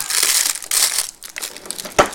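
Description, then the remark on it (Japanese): Crinkly plastic wrapper of an ice cream monaka (Aisu Monaka) being crumpled and torn open, a continuous rustling crackle with bursts of bright crinkles and one sharper crackle near the end, no talking. “なんかデザート食おうかなデザートはこれだな”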